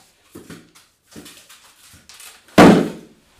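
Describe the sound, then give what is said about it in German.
After several short, muffled murmuring sounds, a single loud gong sound effect crashes in as a segment jingle, with a low, ringing tone that fades over under a second. “Warte, warte, nein, das ist das Gong.”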